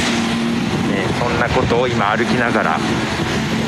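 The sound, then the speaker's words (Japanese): A steady, loud engine rumble from a construction vehicle fills the scene outdoors, droning continuously beneath a man talking as he walks. “ちょっと工事車両の音が入ってると思いますが、ね、”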